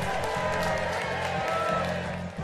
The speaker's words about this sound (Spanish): Fuerte los aplausos.